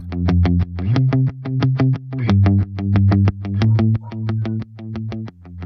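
A band's song plays loud, with heavily distorted guitar or synth hitting a fast, steady beat over a shifting bass line. No voices are heard.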